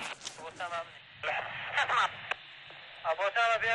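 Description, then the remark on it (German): Crackly, band-limited voices come over a walkie-talkie at a front line in short bursts, with brief gaps of static hiss between transmissions. The radio chatter is clear, though the words are tinny and compressed. “Also die nennen also auf dem Walkie-Talkie heißt es, die sprechen richtig, sind richtig intelligent.”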